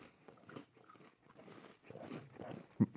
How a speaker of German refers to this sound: Also ich probiere jetzt auch mal den Keks. Den wahrscheinlich größten Keks der Welt. Sollen wir das jetzt wirklich ins Mikrofon mhm. essen? Ja. Okay.